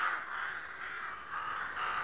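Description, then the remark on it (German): Several crows caw in a steady, overlapping chorus of harsh, rasping calls that rise and fall a few times over the brief stretch, moderately loud with no voices. “Die Raben taumelten wild durch die violetten Herbstwolken.”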